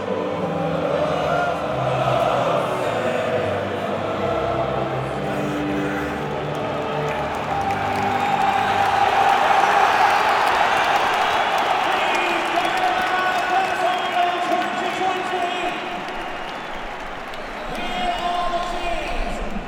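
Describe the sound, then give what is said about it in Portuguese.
Aston Villa supporters at Wembley roar continuously, a dense wash of many voices, clapping and shouts, swelling louder midway and staying steady throughout. “Foi, eu vou até dar um sob-som aqui então para lá para os, os áudios que eu gravei em Wembley, eu estava pertinho da, da torcida do, do Aston Villa.”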